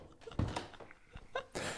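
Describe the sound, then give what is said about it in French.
A door leading to a veranda being opened, with a series of soft knocks, a rattle and a broad scraping rush as it swings, with no talking. “Alors, euh, qu'est-ce que c'est que cette porte cette porte, elle mène à ma véranda.”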